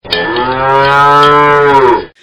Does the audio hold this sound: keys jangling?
no